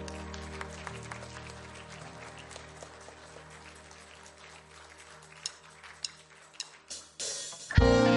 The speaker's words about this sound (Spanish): Entréguele un fuerte aplauso al Señor.